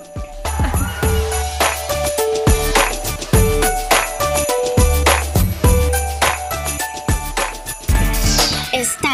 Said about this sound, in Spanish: Bueno, ¿qué les parece si vamos con musiquita mejor?